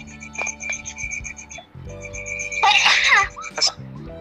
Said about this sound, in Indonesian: eh bersin pak corona